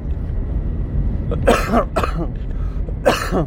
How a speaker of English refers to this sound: so, as you notice, I apologize about the coughing, but it's going to happen just because of what exactly went down on my end.